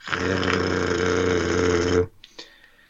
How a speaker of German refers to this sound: Irgendwo springt eine große Maschine an